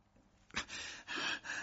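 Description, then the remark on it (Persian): A man pants heavily as he comes up the stairs, drawing a few loud, raspy breaths in quick succession after a short quiet pause, breathless. “همان موقع مردی نفس نفس زنان از پله ها بالا آمد”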